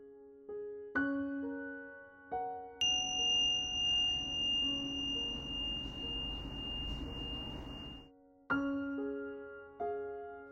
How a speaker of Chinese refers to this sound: 练习即将结束，如果你准备好了，听到铃声就可以张开眼睛。